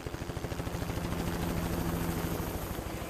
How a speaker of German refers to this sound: Fangen wir mit der wohl spektakulärsten Methode an. Anlieferung per Helikopter.